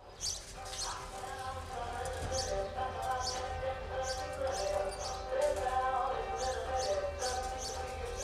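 Birds chirp loudly and repeatedly on a sunny day in Bavaria, as they have since 4 a.m., bright short calls recurring every second or so over a steady, tonal background murmur that continues throughout.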